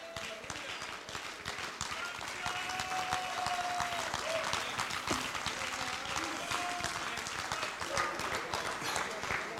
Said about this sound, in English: Stand to your feet and clap your hands and give him a high praise tonight.